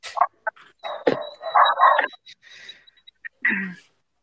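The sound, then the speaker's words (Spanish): A dog barks from downstairs while the listener is on the second floor, several short, muffled barks and yips in quick bursts, moderately loud. “Ah, ah, era tu perro.”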